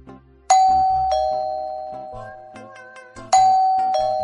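A doorbell chimes in a ding-dong pattern, two bright tones each ringing out and slowly fading, then the ding-dong repeats about three seconds later, loud and clear with no talking.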